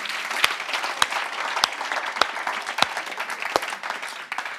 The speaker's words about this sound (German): Der größte Applaus des Tages für ihn.